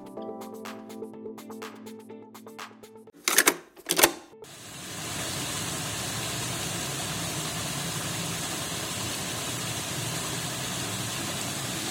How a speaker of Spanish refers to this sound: Estamos escuchando el agua que corre en el lago artificial del templo Wat Prayun o Bat Prayun. Este templo se caracteriza porque tiene un lago artificial y una montaña que se conoce como Turtle, Mountain.